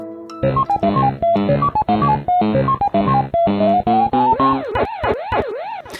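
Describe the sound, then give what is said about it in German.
Pac-Man arcade video game sounds: a quick, bright electronic jingle of stepped beeping notes, then a looping wavering tone that rises and falls like a siren, loud and alone with no talking. “Zurück in die Uhrzeiten des Internets, zurück zu Pac-Man.”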